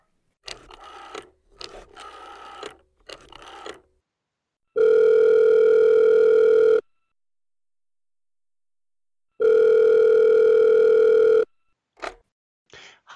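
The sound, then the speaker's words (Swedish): A phone call being placed: a few short clicks and beeps, then two long, steady ringing tones with a silent pause between them, clear, with no one speaking. “Så vi ringer upp”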